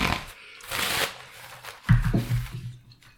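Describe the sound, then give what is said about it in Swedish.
Paper rustles and shuffles, with crisp papery bursts followed by a soft thud and a few low knocks, as sheets are handled and set down on a table. “Nu sölar jag till och med på. Jag är färdigt med, med papper här framme ja.”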